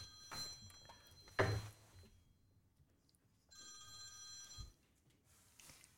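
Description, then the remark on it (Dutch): A telephone rings for an incoming call with bright, repeated electronic bursts, a clear tone sounding in the first half and again near the end, with a soft thump partway through and no talking. “We hebben een beller.”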